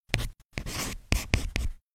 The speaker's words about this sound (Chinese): 不禁拿起纸和笔，在纸上一笔一画的写着